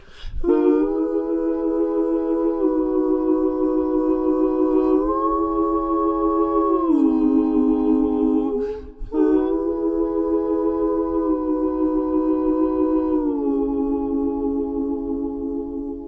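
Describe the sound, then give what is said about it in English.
Sustained, wordless background vocal chords routed through a Leslie speaker emulation, giving a swirling rotary-speaker tone halfway between voices and an organ or keyboard. The chords shift a few times, pausing briefly midway, steady and fairly loud. “These ended up getting routed through a Leslie speaker emulation, which makes them sound like something between a voice and a keyboard.”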